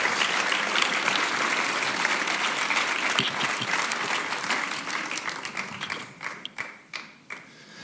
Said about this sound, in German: Hey, wir geben ihm Applaus.